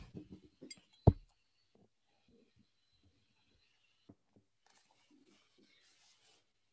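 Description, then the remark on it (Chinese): Someone drinking water from a glass: a few soft handling rustles, one sharp glass clink, then quiet, faint sips and swallows with small scattered noises. No one speaks. “让我喝一点水。”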